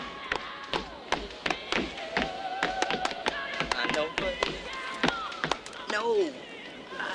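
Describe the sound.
An ashtray lid is snapped open and shut over and over in quick, uneven succession, producing a rapid string of sharp, close clacks while voices murmur underneath.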